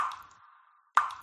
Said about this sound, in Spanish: Una ducha perdiendo agua suena así.